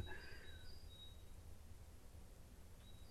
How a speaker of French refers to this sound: Et, entendant les oiseaux qui chantent ce matin,